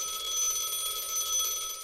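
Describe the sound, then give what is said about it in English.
A telephone rings in an underground maze with a shrill, electronic warbling tone that holds steady through the whole short moment, moderately loud, with no voices present. “There's another phone.”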